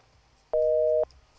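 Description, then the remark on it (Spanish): A single steady electronic busy tone as a WhatsApp call drops: two close pitches held together for about half a second, sounding clear and upfront over faint low background hum. “lo perdimos, ¿no? Andrés, Andrés por WhatsApp. Bueno, lo perdimos de nuevo, ya vamos a estar reconectando”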